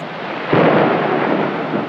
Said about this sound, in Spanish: El aguacero y sus truenos.